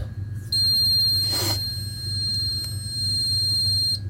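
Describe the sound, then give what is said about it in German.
A steady, high-pitched electronic alarm tone sounds continuously for a few seconds with a brief burst of noise partway through, then abruptly cuts off as the alarm is switched off. No one speaks. “Alarm löschen, ja ein, nein aus, ja ein.”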